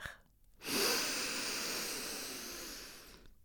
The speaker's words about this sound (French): Pour commencer, prends trois grandes inspirations par le nez. Essaye d'avaler par ton nez le maximum d'air.